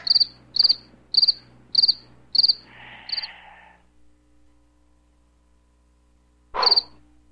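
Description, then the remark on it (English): Six crisp cricket chirps pulse in a steady rhythm, then stop; after a few seconds of near silence, a single louder chirp sounds. No voices. “I need crickets.”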